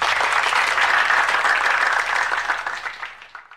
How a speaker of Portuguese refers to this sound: Edição, por favor, coloque os aplausos aí.